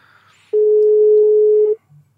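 telephone ringing tone

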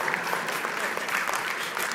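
audience clapping

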